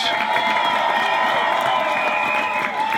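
A crowd in Vienna cheers and shouts continuously, a dense, loud wash of voices with high whistles and whoops cutting through, steady for the whole stretch without a pause.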